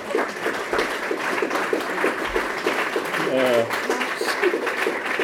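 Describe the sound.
An audience claps steadily to welcome a speaker at an event, a dense, even crackle of many hands lasting the whole stretch, while a voice briefly speaks over the applause partway through.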